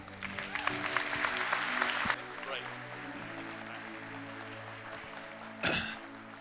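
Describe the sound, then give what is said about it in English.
An audience breaks into loud applause welcoming a guest speaker, lasting about two seconds, then drops away to quieter sustained musical tones, followed by a brief burst of noise near the end. “So, if you would just join me in welcoming”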